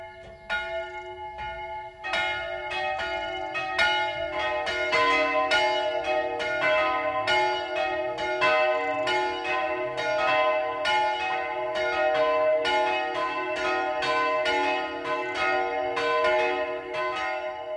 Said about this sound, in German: Es ist 12 Uhr. Das Mittagsläuten kommt heute aus Unterzenn in Mittelfranken.